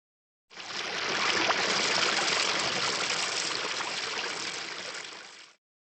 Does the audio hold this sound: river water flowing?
yes